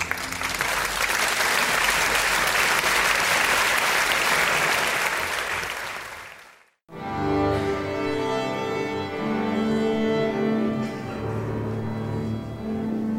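A large audience claps in a dense, steady roar of applause for about six seconds, cuts off abruptly, and is followed after a brief pause by instrumental music.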